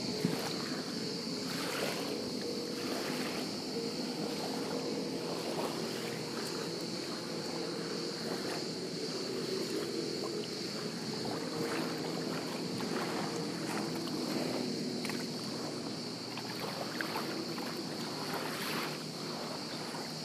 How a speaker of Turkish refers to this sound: bir girişte size sadece dalga sesi dinletmek istedim. Çünkü bazı insanlar dalga sesini dinlemeyi çok seviyor. Onun için böyle 10 saniye 20 saniye dinletip rahatlatıp size öyle başlatacağım.